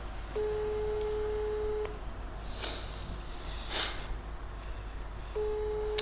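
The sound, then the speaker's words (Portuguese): A mobile phone line tone sounds as a long steady beep, falls silent for several seconds while faint rustling bursts pass, then the beep starts again. There is no talking. “Neste momento ouço só mastigar e o telemóvel.”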